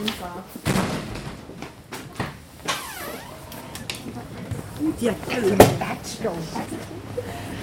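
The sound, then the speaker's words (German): A heavy door is pushed open into a warm, large white tent by a woman carrying a last box under her arm, with a series of knocks, scrapes and a sharp thump, amid rustling movement and faint, indistinct voices in the background. “Mit einer letzten Kiste unter dem Arm drückt sie die schwere Tür auf, rein ins warme Zelt.”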